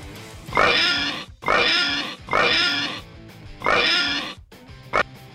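A pig oinks and squeals four times in a steady, evenly spaced rhythm, loud, followed by one short, clipped grunt. No one speaks.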